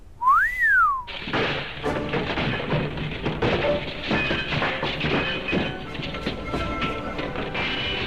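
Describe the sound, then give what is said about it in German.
A single short whistle on an opera house stage swoops up in pitch and back down, then gives way to a long stretch of loud, dense clattering and rumbling noise as the stage collapses, including the castle set for Tosca. “Ich mein, da stürzt die ganze Bühne ein, wenn hier pfeift.”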